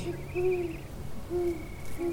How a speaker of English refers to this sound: The ominous croaking of a bird came from just over her head, and something howled far away.